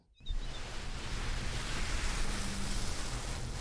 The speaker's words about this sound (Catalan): També ben els rellotges d'arena,